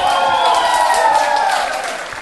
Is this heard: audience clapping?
yes